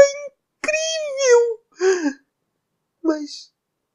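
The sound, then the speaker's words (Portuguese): A voice imitates crying with several short whimpering sobs and wavering, falling moans separated by brief pauses, voicing the lonely dark crying in a told story. It is moderately loud, with no other sounds around it. “Por que, que seu amigo escuro estava chorando?”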